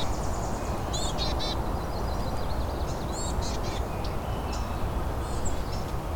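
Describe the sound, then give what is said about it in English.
A hermit thrush sings a few clear, fluting phrases, the high notes rising over steady low rumbling background noise, with short pauses between phrases. “hmm, sounds like we got a hermit thrush here.”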